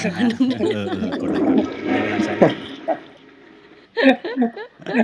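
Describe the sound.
A toilet flushes with a loud rushing gurgle of water for about three seconds while people talk over it; then the water fades and voices continue alone.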